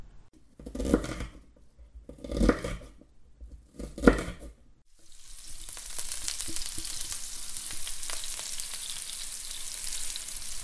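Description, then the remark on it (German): Three short bursts of scraping and clinking give way to a loud, steady sizzle of food frying in a pan, a dense hiss dotted with crackles and pops that continues to the end. “Pass auf, das brennt an.”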